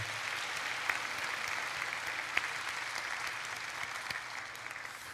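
An audience at an Easter service applauds to encourage the worship team of the combined high school and young adult departments: steady clapping for about five seconds, a dense, even wash with a few sharper claps standing out, and no talking over it.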